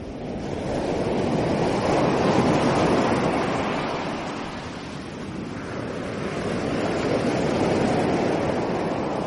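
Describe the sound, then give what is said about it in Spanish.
Ocean waves roll and break on a shore in a steady, full wash of surf, swelling and easing in slow surges with no voices present. “Después de una serie de obstáculos, María llega al mar.”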